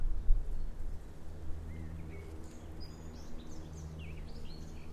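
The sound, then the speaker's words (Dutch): Several birds chirp and warble high in a garden on a sunny, breezy Sunday, over a steady low outdoor rumble, their short calls scattered irregularly through the moment with no voices present. “geluid van de vogels.”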